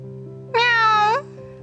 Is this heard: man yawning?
no